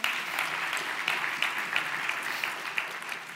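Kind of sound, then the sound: crowd, audience clapping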